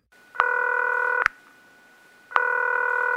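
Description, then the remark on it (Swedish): Two sustained electronic telephone dialing tones as a call is placed, each held for about a second, separated by a short gap with faint background hum; crisp and fairly loud, with no voices. “Och nu ringer vi upp”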